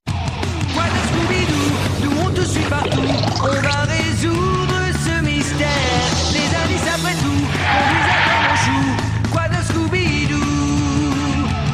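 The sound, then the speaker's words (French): The early-2000s opening theme of the Scooby-Doo cartoon series plays, an upbeat, densely layered tune with bright instruments and sung vocal lines, staying loud and energetic without pause for about twelve seconds. “Celui qui doit vous sembler plus familier date du début des années 2000, soit 30 ans plus tard. Vous voulez l'écouter”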